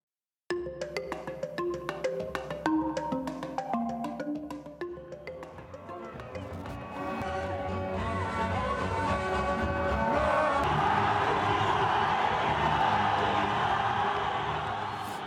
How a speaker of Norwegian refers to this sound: Det vi hører her, er sang, dans og jubel i Addis Abeba i Etiopia for snart en måned siden.